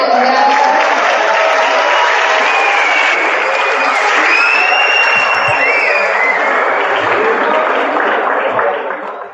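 A large audience claps steadily and densely for about nine seconds to welcome debate guests Dr. Sadegh Zibakalam and a former Iranian ambassador, with a few faint whistles and cheers rising over the applause before it tapers off at the end.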